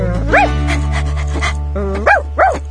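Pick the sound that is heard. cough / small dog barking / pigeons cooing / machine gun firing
small dog barking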